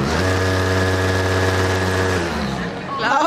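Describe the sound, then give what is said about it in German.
A loud, steady motorized hum from the vibrating motor of a relatively large Motorbunny sex machine, a strong low drone with layered harmonic overtones, holding constant for about two seconds before the pitch drops and it winds down, followed by a brief rustle. “Wir haben hier, ähm, ja, hier ist das Modell, es ist relativ großes, es ist auch relativ laut, wenn man es voll aufdreht, aber kein Mensch braucht diese Stärke, weil es einfach too much ist.”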